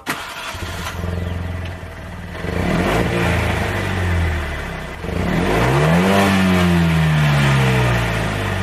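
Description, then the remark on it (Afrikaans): The 875 cc two-cylinder turbo engine of a small retro three-door Fiat 500 starts with a burst, idles with a gruff, lumpy rhythm, then revs up twice, the pitch rising and falling, loud and alone without talk. “Die interessante grom kom van 'n twee silinder.”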